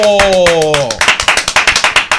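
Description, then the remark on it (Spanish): A short vocal sound with a falling pitch gives way to applause for Brecheo Digital as he is introduced on a show: a run of sharp, evenly spaced claps, fairly loud and rhythmic, continuing to the end. “Un aplauso”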